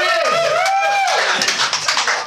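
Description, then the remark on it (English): At a comedy show, a drawn-out, rising and falling shout opens the moment, then the audience breaks into steady applause to bring on a comedian, many hands clapping in a dense, crackling wash that stays loud to the end. “I want a big applause from here.”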